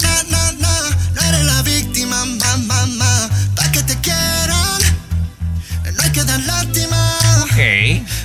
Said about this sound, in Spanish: Primero vamos a escuchar la de …, …